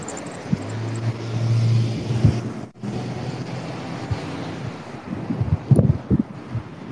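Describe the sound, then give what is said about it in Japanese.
Strong wind buffets the microphone in heavy, uneven low rumbles and gusty thumps, loud throughout, with a steady low hum underneath and no one speaking, while riding a bicycle across a long bridge over the river at the border between Tokyo and Saitama Prefecture, entering Kawaguchi. “配信的には風がピューピューなってるだけだと思います”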